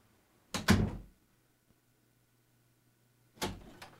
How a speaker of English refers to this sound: Well, let me let me go and look outside. Hang on. Oh boy. Oh boy. I'm going out the door.